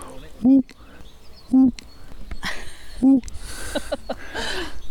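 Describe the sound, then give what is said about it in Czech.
A voice imitates a European fire-bellied toad's call, as Smoljak does playing the miller in the film Na samotě u lesa: three short, low, mournful hoots, evenly spaced about a second and a half apart, clear against a faint hissy background. “Každý zná tu žábu určitě ze známého filmu Na samotě u lesa, kde pan Smoljak, co by mlinář, krásně napodobuje eh, zvuk této žáby, takové to”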